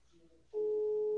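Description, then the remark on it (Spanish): A loud, steady telephone call tone of an unanswered call to a reporter in Michoacán switches on abruptly after a short, quieter stretch of faint low humming, then holds unbroken until the end. “vamos a tratar de contactarlo por teléfono para que nos dé su reporte Michoacán”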